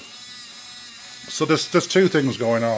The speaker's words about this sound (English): The motor's turning, which is making a go, type noise, and then you might hear the metallic sound of the balls as well as the balls are moving around. It's not perfect. Sometimes the balls get stuck, sometimes they don't.